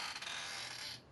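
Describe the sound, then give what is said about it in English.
A chair squeaks softly for about a second, a faint, drawn-out creaking with a hissy edge that fades at the end. No one speaks. “Hear my chair squeaking?”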